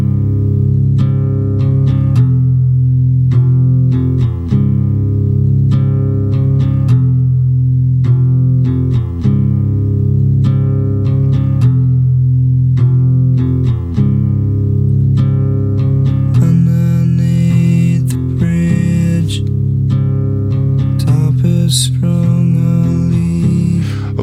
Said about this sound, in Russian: Ну, давайте послушаем гитарный риф оттуда.